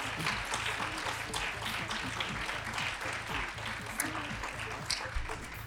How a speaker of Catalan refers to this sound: Doneu-los un aplaudiment, ah, sisplau. Va.